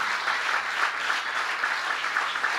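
Steady, dense applause from a crowd, a continuous wash of many hands clapping at an even loudness with no voices standing out, sustained throughout.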